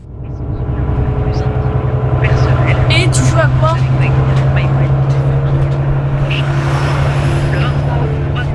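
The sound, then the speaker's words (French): A steady, low engine drone fills the interior of a bus that a middle-school student rides to school, loud for the whole stretch, while people talk over the continuous rumble. “Dans la seconde partie, Arrêt demandé, on retrouve les mêmes scènes dans le bus avec l'intervention d'un passager.”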